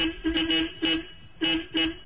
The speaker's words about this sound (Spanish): No es un método de comunicación en torno a insultos, muévete, porque además hay tipos de claxons que sabes lo que están diciendo, ¿no?